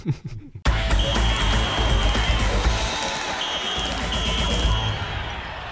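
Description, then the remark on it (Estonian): A basketball is dribbled over and over, loud, the bounces mixed into constant crowd noise and a faint steady high tone after a brief quiet start. “tõstab palli üles ja läheme küsimusmängu juurde”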